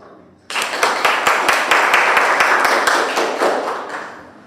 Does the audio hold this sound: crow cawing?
no